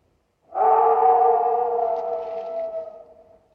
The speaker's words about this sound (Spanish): Esto que acabáis de escuchar era la secuencia en la que los dos mochileros protagonistas oyen los aullidos del terrible hombre lobo que les acecha tras abandonar el pub